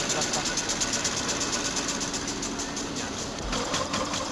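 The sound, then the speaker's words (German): A water-jet weaving loom, which shoots the thread through with water instead of air, runs steadily, a continuous mechanical whir with a fast, even rhythmic clatter pulsing through it, fairly quiet and unbroken throughout, quieter than the other looms. “Vielleicht machen wir es so, dass wir diese Maschine mit Luft einmal abschalten und die Wassermaschine einmal anhören.”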